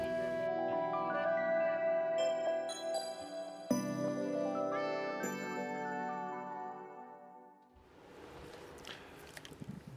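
A pop song is played on a radio broadcast with steady, sustained melodic chords and layered instruments. It shifts a few times before giving way to a noisy, hissy wash near the end. No one speaks.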